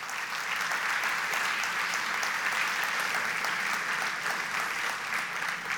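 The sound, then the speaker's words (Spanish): Sustained applause from an audience for all the young people, a dense, steady wash of many hands clapping at an even loudness for several seconds, with no voices standing out. “yo quiero que le den un aplauso a todos los jóvenes, aunque muchos de ellos subieron ahora mismo a su clase.”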